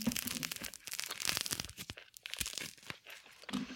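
Tangerines being peeled for ASMR: a run of soft, irregular tearing and crinkling sounds with crisp, crackly bursts of peel ripping, steady for a few seconds, with no talking.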